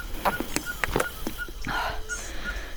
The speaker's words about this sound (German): Hinten pfeift die Zwergeule, falls man das hört.